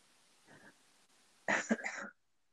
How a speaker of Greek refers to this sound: ε, μην νιώθεις άσχημα για το κούχου κούχου. Ε, αυτά συμβαίνουν στις live εκπομπές.